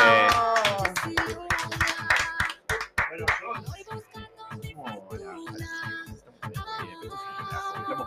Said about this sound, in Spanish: Quiero proponer el aplauso final para este equipo increíble.